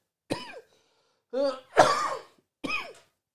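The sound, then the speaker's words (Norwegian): Four separate, forceful coughs spread over a few seconds, the third one longest and harshest, with brief silences between them. Fairly loud, with no talking. “Jeg har vel stort sett hosta siden uh, juli 2020, jeg tenker meg om.”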